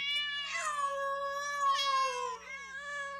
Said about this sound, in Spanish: Imaginemos esta escena. Un numeroso grupo de gatos conviviendo en un basurero. Diferentes razas comunicándose entre sí. Y lo que escuchamos es algo parecido a esto.